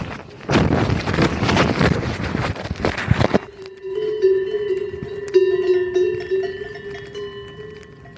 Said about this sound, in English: Armin crashes in or near a meadow filled with cows. Their bells create a sort of ambient music.